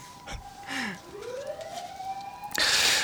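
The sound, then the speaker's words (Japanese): A fire engine siren wails from outside, its tone sweeping up and holding steady, with brief bursts of rustling noise near the end and no one talking. “これサイレン拾ってるのかな今今すごいね今ね拾ってます、ね、これなん消防消防車消防っぽいですねうんピーポーピーポー言ったりな ずっと入ってます”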